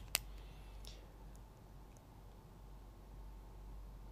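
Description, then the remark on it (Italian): A single sharp click of a retractable pen near the start, followed by one or two fainter clicks, then quiet background noise with no talking. “È la sensazione, sapete queste penne qui, no? Quelle a scatto, la vedete, no? Sentite lo scattino, ok?”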